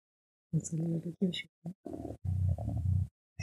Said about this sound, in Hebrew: אם אתם שומעים גרגורים זה זה החתולים.